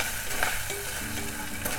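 Bacon and garlic for a soup sizzle steadily in a pot while a utensil scrapes and stirs, with a few light clinks over the continuous hiss. No one speaks.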